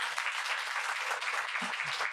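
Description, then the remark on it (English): A crowd applauds a helper who ran tech setup and a third camera, clapping together in a dense, steady burst of applause, many overlapping hand claps forming a bright wash of noise that holds level for a couple of seconds. “So can we give him a round of applause?”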